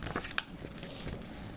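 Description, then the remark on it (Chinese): A paper book page being turned: a couple of quick crisp crinkles, then a soft, sustained papery swish, all fairly quiet with no voices. “好，下一页。”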